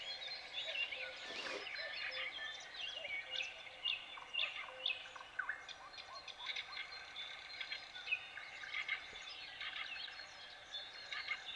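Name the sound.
many birds singing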